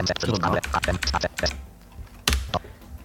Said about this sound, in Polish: Klikam na przycisk set w razie czego strzałką. Znaczy enterem, ale y, y, wybieram strzałką.